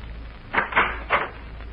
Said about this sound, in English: Who is it? District Attorney. Open the door, please.